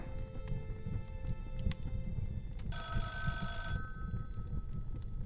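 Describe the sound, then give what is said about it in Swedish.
A telephone rings once in a bright, buzzy burst lasting about a second, clearly audible over a steady low rumble and clatter of background noise. “Vänta, nu ringer Freidner. Det hör jag på signalen.”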